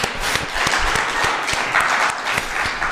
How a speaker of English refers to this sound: That's really a dead clap. Let's give the Lord a clap like you love the Lord.